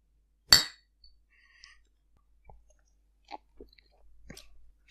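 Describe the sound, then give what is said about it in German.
Two glass bottles clink together once in a toast, a bright sharp knock, followed by faint scattered taps and small handling sounds with no talking. “Eher, naja, ich sag mal, Prost Hannes. Prösterchen.”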